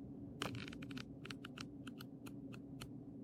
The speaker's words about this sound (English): Listen to these cards. I'm gonna shuffle them